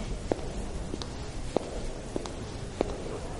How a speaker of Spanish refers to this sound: Eso que se escucha son los zapatos de Carolina bajando en el puerto de Buenos Aires.